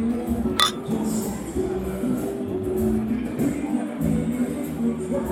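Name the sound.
glasses clinking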